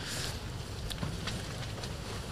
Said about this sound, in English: It's, it is quite windy actually here. It's a bit, it's a bit fairly bit windy. The sun is shining. There's blue skies, but it's still a bit breezy.